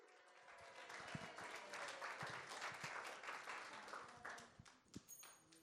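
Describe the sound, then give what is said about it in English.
An audience claps steadily for volunteers for several seconds, a dense, bright patter of many hands with a few sharper individual claps standing out, fading slightly toward the end. “Give up my volunteers a round of applause.”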